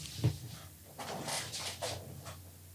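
A soft thump, then a chair rolls backward on its castors, a rumbling scrape in several short surges over a couple of seconds, moderately loud, with no talking.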